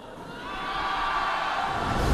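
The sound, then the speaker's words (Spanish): A large audience shouts together as if afraid, in a sustained, wordless roar that swells steadily louder over a couple of seconds, with no single voice standing out. “tienes temor y ese es el efecto que no encontramos de los que tienen temor, así que ayúdame y grita como si tuvieras temor.”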